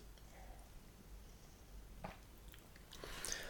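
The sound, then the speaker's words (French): A quiet, small sip of water: faint wet mouth sounds and a small swallow, then a soft breathy rustle at the end, with no talking. “Alors laissez-moi boire une petite gorgée d'eau et je vous explique ça.”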